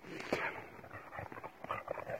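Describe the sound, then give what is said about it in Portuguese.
Dogs play right in front of the recorder at sunset, letting out soft whimpers and quick panting breaths amid scuffling movement, a busy, continuous jumble of small canine sounds with no one talking. “E os cachorros brincam aqui na minha frente, enquanto o sol se põe e as andorinhas voam.”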